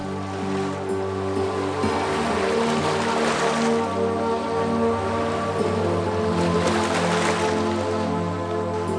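Water waves wash in soft, continuous swells, rising and falling every few seconds, with a steady low humming drone underneath and no voices.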